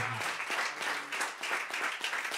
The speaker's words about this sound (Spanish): Aplauda al Señor. Shout out to God.